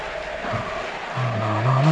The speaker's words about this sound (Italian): La macchina.